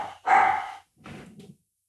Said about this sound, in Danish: Og så har vi en hund, ja.